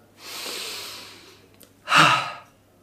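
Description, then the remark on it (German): A long, airy inhale followed after a brief pause by a louder, rushing exhale, like a deep deliberate breath in and out, with no talking. “Ich darf mal wieder auch hier eine Runde durchatmen.”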